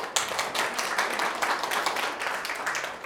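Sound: audience applause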